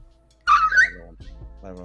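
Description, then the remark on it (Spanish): A dog lets out a loud, high-pitched whine, one sliding cry under a second, followed by brief voiced sounds that could be a person speaking or a low yelp. “Oh, hasta el perro se pactó.”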